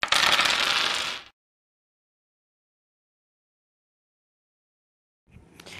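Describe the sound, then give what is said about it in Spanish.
Dice are rolled during a board game, clattering loudly for about a second, followed by a long silence, then a second, softer rattle begins just before the end. “Ok, vamos a lanzar los dados.”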